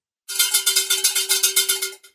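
bell ringing

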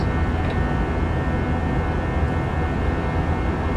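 airplane cabin engine noise

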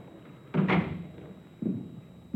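door being closed

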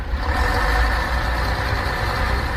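bus engine idling

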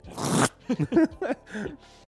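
paper rustling

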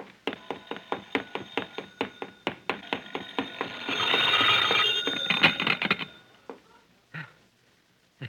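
telephone ringing

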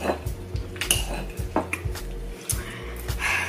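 cutlery clinking on dishes

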